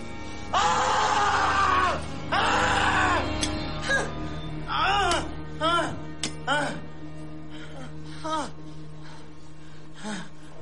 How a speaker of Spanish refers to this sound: Claire y un hombre curan una pierna al enfermo que grita